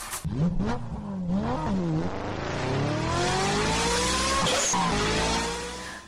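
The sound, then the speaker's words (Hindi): A car with luggage loaded in it drives off toward the village headman's house. Its engine revs up and accelerates, the pitch climbing steadily as it pulls away, loud throughout with a slight fade at the very end. No voices. “उन लोगों ने बर्णिता का सामान उठाया और गाड़ी में रख दिया फिर वर्णिता को लेकर वो मुखिया जी के घर जाने लगे”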